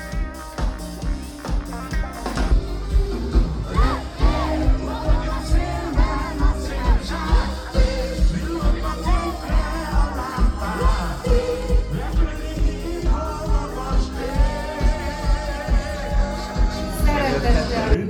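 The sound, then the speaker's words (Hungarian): A large outdoor festival crowd of several thousand sings along loudly with the closing act's hits to live music with a steady beat, voices blending into a continuous roar with occasional shouts and whoops throughout. “hogy slágereit együtt énekelje a tomboló közönséggel.”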